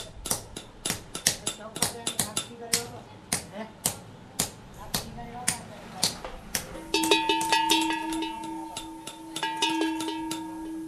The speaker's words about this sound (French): Des cloches, le village de Djoura résonne autant du fer battu que des cloches qui naissent dans ses ateliers, les notes dispersées fissa dans les étendues désertiques alentours.